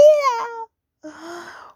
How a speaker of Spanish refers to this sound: La vieja le contestó, tu hermano flojo está llorando porque le hinca mi bello puyano. Pero el niñito sigue llorando.